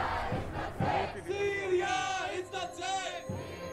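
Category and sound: crowd, protesters chanting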